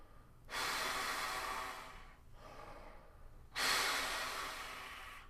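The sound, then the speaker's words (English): A breathing demonstration: two long, forceful exhales of free air, airy like a steady hiss, separated by a quieter breath; no voice or tone, just breathing alone. “So I hear that tone in my head, and I just start moving free air with that.”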